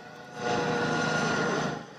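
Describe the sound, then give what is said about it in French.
A helicopter deployed in the air during a search operation led by gendarmes for a missing 15-year-old: its engine roar swells quickly, holds steady and loud with a rumbling, whirring drone, then begins to fade as it passes overhead. No voices are heard. “Dans les airs, un hélicoptère est mobilisé.”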